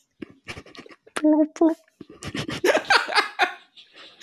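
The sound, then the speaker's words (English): A voice imitates gurgling underwater with wet, bubbly burbles and a few tonal hums, fairly loud, about four seconds of sputtering mouth noises with a hint of laughter. “Some burbling and some gurgling.”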